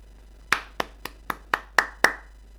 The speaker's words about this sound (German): Da klatsche ich für.